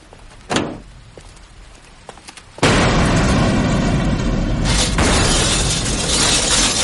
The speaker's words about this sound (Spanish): Al arrancar el vehículo, este explota. Yoye se da la vuelta y observa horrorizada del coche en llamas.